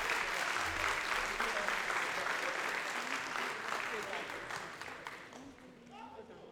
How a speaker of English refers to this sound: Thank you all so much. Round of applause again for them, y'all.